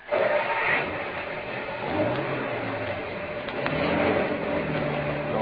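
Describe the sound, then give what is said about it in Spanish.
A car engine runs loud throughout, its pitch rising and falling as it revs and pulls away, with a steady rough mechanical drone underneath. No one speaks. “Píquele al auto, píquele si no quiere que la castigue.”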